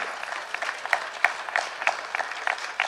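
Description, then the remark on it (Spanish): An audience applauding together during a church sermon, a dense wash of many hands with stronger claps falling into a steady rhythmic beat, with no voices on top. “A ver, los que no aplaudieron, Tenga fe, hermano, y aplauda con los que están aplaudiendo.”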